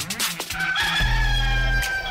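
A rooster crows loudly, one long strained call rising into a sustained, harmonic cry that holds for about a second before breaking off, with some rustling beforehand.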